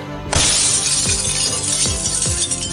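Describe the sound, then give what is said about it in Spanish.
A bedroom window pane is struck and smashes loudly, followed by a sustained spray of shattering glass with several dull knocks as shards and debris keep falling onto the bedroom carpet. “Un vidrio roto partido sobre la alfombra de la habitación”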